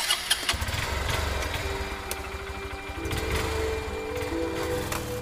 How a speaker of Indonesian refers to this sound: Gue pun siap-siap dan langsung nyalain motor.